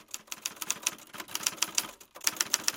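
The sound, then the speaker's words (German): Rapid, uneven clatter of typewriter keys being struck in quick bursts, with a brief pause partway through before the typing resumes, fairly loud with no voices. “Früher hat man sowas ja auf der Schreibmaschine gemacht. Da hat man in die Tasten gehauen und das hat man hat dann immer so ein, so ein bisschen geknattert.”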